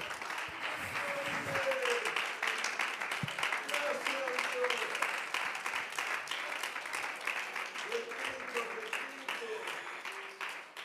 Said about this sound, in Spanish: Si ese aplauso es para Él, que sea más lindo en esta hora.